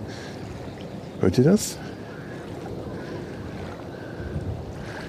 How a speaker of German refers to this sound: Die Wellen schwappen. So schön.